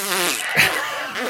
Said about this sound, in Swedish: Näverlur låter så här.